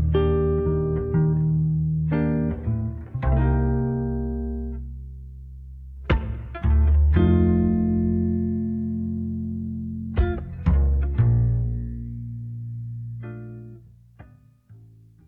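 A recorded song plays, an instrumental passage with no singing: full sustained chords over a deep bass, bright plucked accents at each change, and a gentle dip in level before it swells again.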